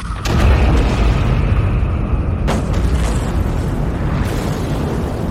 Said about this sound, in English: In a moment that was equal parts rage and meditation, I detonated each drone's thermonuclear explosive.